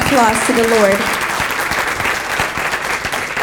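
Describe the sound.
Loud, dense applause from a church audience clapping for the Lord during a sermon, steady clapping that fills the whole clip, with a brief raised voice or cheer heard over it in the first second.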